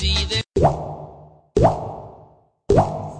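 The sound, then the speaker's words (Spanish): Water drips from a leak, three loud plops about a second apart, each landing with a hollow, ringing splash that fades before the next. No one speaks. “Este sonido le quita el sueño a mucha gente todos los días. Si no lo detenemos Millones de personas no podrán dormir tranquilas. Repara las fugas de agua apenas aparezca.”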